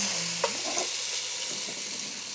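Onions, with celery and carrot, sizzle steadily in hot fat from a brisket, a dense crackling hiss throughout, with a brief scrape of a utensil stirring the pan near the start.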